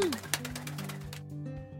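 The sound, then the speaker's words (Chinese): Three black drongo birds chirping above a vegetable garden on a sunny morning, flapping their wings in the wind, in a quick run of sharp, bright calls for about a second, over a low, steady droning tone that continues after the chirps fade. “在一个晴朗的早晨，有三只乌黑亮丽的鸟儿在菜园的正上方，随风拍动着翅膀，叽叽啾啾啾啾啾啾啾啾啾啾。”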